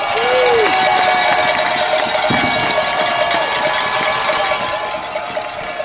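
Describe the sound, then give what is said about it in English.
A large football stadium crowd on their feet roars and cheers in a loud, sustained wall of noise as the Chargers break the huddle near the five yard line in the third quarter against the Cavaliers, with scattered noisemakers clanging through it, easing off slightly near the end. “The crowd on their feet.”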